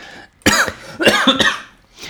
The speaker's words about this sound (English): so this is going to be like the coughing podcast. I'm going to have to edit out so many coughs.